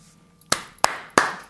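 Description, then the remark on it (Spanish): Four sharp, bright claps in a slow, steady rhythm, each ringing out briefly before the next, with no voices or other sounds beneath them. “Un aplauso, un aplauso, un aplauso para la mala que se ha hecho la vasectomía.”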